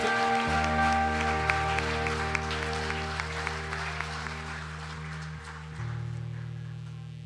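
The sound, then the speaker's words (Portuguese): A church audience applauds the Lord Jesus steadily, a dense wash of clapping that carries on throughout, with a sustained low musical drone or organ tone underneath and no voices standing out. “Você pode aplaudir o Senhor Jesus bem forte.”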